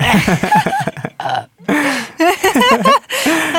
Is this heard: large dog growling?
no